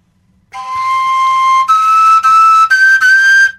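A koncovka overtone flute without finger holes is blown alone, with different breath strengths producing a breathy, bright tone that jumps upward in a few pitch steps, separated by brief breaks between overblown notes.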